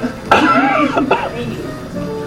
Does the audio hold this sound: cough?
yes